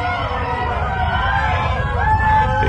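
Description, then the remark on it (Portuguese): A dense crowd of Israelites runs off shouting that the earth will swallow them too, overlapping voices over a steady low rumble; the din stays loud and continuous, with a few cries rising near the end. “Quando ouviram os gritos deles, Todos os israelitas que estavam ali saíram correndo e gritando: A terra vai engolir a gente também!”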